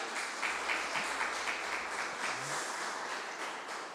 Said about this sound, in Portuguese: Vamos aplaudir Jesus, né?